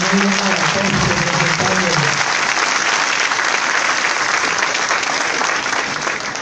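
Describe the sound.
Loud, steady audience applause fills the whole stretch, a dense wash of clapping, with a voice briefly audible underneath at the start before the clapping takes over entirely.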